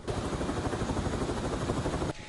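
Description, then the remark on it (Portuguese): A Military Police air unit helicopter's rotor beats in a steady, rapid thumping under a loud, constant engine roar, with no voices, before the noise dips slightly at the very end; the helicopter takes a rescued two-month-old baby from a rural area to hospital. “No colo da avó, a criança foi colocada no helicóptero da PM e encaminhada para o hospital.”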